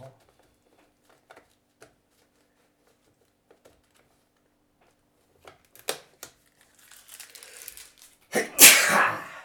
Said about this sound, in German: So ein bisschen niesen.